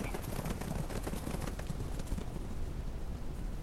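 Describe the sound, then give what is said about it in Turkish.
Slow, steady hoofbeats of horses walking slowly in through a gate, a series of soft clops over a dense, noisy background, with no voices present. “Atlarımızı yavaş yavaş kapıdan içeri sürdü.”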